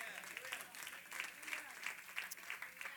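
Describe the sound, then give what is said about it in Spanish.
An audience claps together in sustained applause for the Lord, a dense, steady patter of many hands for a few seconds, with no talking over it. “Den un aplauso al Señor.”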